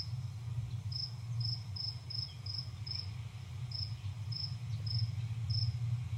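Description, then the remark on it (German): Crickets chirp in a steady series of short, high-pitched pulses, evenly spaced, over a constant low hum in the background, played back as a recorded nature sound track. No voices are present. “Wie Sounds und Natura. Grillen.”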